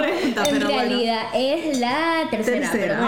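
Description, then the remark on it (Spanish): Several short, bright clinks of glass ring out over laughter and conversation as glasses are tapped together in a toast. “Entonces, salud por eso, la primera pregunta.”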